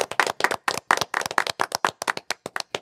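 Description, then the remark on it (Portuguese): A burst of applause at a carnival event for the man who leads the Unidos de Vila Isabel samba school, with sharp, rapid hand claps, loud and dense, the individual claps overlapping into a steady crackling patter throughout. “Palmas para”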